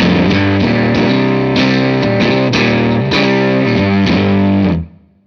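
A compressed, fuzzy bass guitar plays a steady, sustained riff with rounded, saturated low tones and clear note changes, holding an even level before abruptly cutting off near the end.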